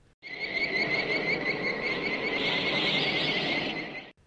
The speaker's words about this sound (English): which is a movie about giant ants attacking Nevada after a nuclear explosion and the sound that those ants make is kind of this weird lilting chirping sound